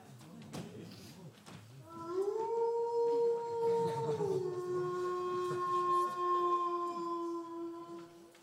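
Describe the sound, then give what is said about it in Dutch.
A chihuahua lets out a long, sustained howl that rises, holds steady, then slowly falls, like a wolf's call; it is fairly loud, with some low background rumble before it starts. “U ziet deze lieve chihuahua wellicht niet als een wolf.”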